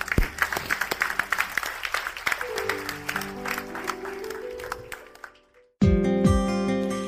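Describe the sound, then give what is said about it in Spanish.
An audience at an Eclesia Doral church service applauds God after a closing prayer, with dense, lively clapping that slowly thins and fades while sustained keyboard chords swell underneath; after a brief silence, music begins. “¿Por qué no le damos un fuerte aplauso a nuestro Dios?”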